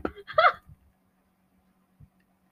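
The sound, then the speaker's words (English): A person does a brief vocal impression of a chicken, a quick cluster of clucking bursts, then near silence with a soft thump shortly after. “I'll act like a chicken.”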